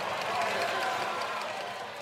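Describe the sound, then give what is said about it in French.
Members of the French Assemblée nationale erupt in a dense, sustained roar of jeers and shouting as Prime Minister Élisabeth Borne attacks La France insoumise and the Rassemblement national, filling the chamber steadily for a couple of seconds with a mix of crowd noise and scattered clapping. “Voilà pour la Première ministre Elisabeth Borne euh, qui a à la fois attaqué la France insoumise et le Rassemblement national sous les huées de l'Assemblée nationale.”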